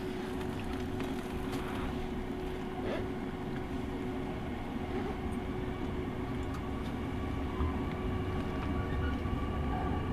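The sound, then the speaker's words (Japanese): Steady low rumble of the limited express Sonic 6 on the Nippō Main Line in Japan, running on rails between Yanagigaura and Kokura, bound for Hakata via Kokura, heard from inside a carriage, with continuous wheel noise and a faint sustained hum, no voices. “耳で楽しむ鉄道旅 日豊本線特急ソニック6号”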